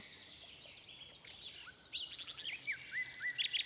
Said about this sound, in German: Der Gesang hört sich aber am besten hier im Grünen an, antwortete die Nachtigall.